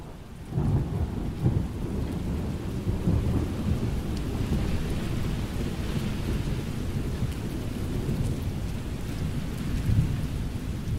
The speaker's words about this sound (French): Imaginez. La pluie qui frappe au carreau de la poupée moderne, le vent qui fouette les pavés rue de la Pomme.